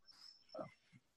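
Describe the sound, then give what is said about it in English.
A female Great Dane, scared of a backdrop, whines faintly: a thin high-pitched whine followed by a short, lower groaning whimper and a soft grunt, then an abrupt burst of noise at the end. “Whose dog is crying?”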